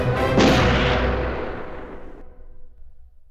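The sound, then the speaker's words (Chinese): A single loud shotgun blast over a frozen wheat field, with a booming, explosive impact, followed by a long rumbling decay that fades over a few seconds. No voices are heard. “震耳欲聋的声音划破了麦田的上空。一阵爆炸震波将所有站立的人都震倒在了结冰的地上。”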